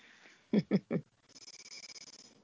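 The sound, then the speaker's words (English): A sleeping, dreaming dog snuffles, starting with three short, muffled woofs, then a quick rhythmic run of soft snorting breaths. No one speaks. “Is that your dog?”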